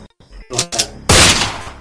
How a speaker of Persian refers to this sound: منتظریم که این شلیک انجام بشه و بریم سراغ بقیه کارامون خب با صدا خف... خفه کن زد